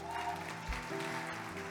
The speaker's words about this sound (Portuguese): Quando eu vejo que você, pode aplaudir a Jesus.